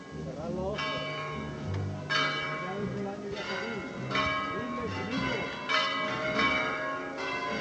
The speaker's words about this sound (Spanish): Ahora las campanas que van a dificultar escuchar con nitidez la, música